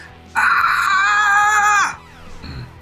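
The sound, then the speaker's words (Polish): A single loud, shrill, high-pitched scream, the cry of the character Frida coming from the canteen aboard a ship, held steady for about a second and a half before cutting off, leaving faint background noise. “Kiedy pada nie, nie. magiczne słowo stos, rozlega się piskliwy wrzask.”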